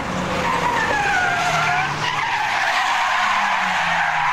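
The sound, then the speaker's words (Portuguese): Tires screech in sweeping, sliding squeals as cars race at high speed through Paris traffic in a chase, a Dodge driver making risky maneuvers, engines roaring loudly throughout, with a pitch-bending skid carrying the whole chase. “Os carros perseguiam em alta velocidade. O motorista de Dodge fazia manobras arriscadas para tentar se desvencilhar dos caras.”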